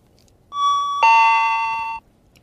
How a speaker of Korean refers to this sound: 뭔지 아시겠죠, 여러분? 은행 가면 번호표 받고, 예, 띵동 그 소리입니다.